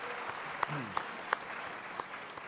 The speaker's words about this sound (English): so you're really nice to uh, applaud us like that before we present you what we've done.